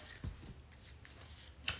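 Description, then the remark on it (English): Quiet papery rustling of a deck of oracle cards being shuffled, with a couple of sharper slaps or snaps standing out over the soft continuous riffle. No one speaks. “I'm like I feel like I've just been shuffling these for a minute now.”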